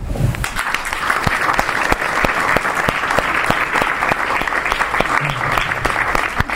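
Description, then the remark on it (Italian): An audience of young people applauds steadily, a dense wash of many hands clapping at an even, sustained level for several seconds, with a few sharper individual claps standing out and no talking over it. “euch hier zu sehen, den Applaus zu bekommen, ist was, was mir mit fast 92 Jahren zeigt, dass es sich gelohnt hat, so lange durchzuhalten und dass es einen Sinn hat, hierher zu kommen und mit jungen Leuten zu sprechen.”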